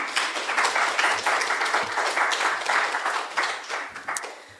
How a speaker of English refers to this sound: So um, uh, … very kindly stepped up and is going to play a tin. So can we please have a big round of applause for the …?